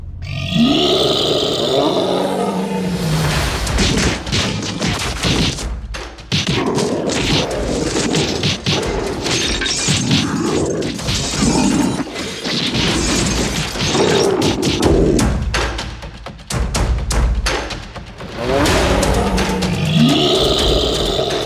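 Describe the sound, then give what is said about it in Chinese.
Dragon and tiger fighting sound effects: loud, continuous growls, roars and grunts mixed with crashing impacts, with brief lulls before the brawl surges again. “乖乖，是不是吵得太厉害了？这就是所谓的龙虎斗。”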